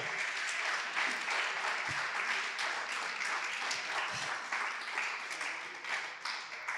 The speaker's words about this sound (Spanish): Junte sus palmas y dele fuerte el aplauso.